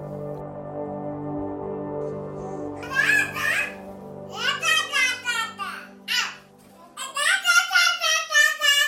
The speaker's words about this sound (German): Das hier sind zwei Babys, die so etwas wie eine Konversation führen. Zugegeben, da kann man noch nicht viel verstehen, aber schon bald werden aus dem unverständlichen Gebrabbel richtige Wörter und schließlich Sätze mit einer richtigen Grammatik.